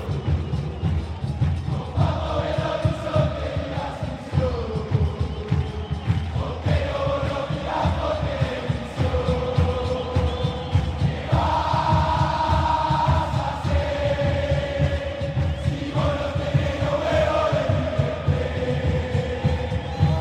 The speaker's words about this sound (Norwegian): Fotballsangen er inspirert av den fantastiske River Plate-sangen De la mano del muñeco